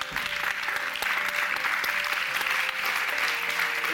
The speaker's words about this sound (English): Before we go, though, I'd like you to give a huge round of applause.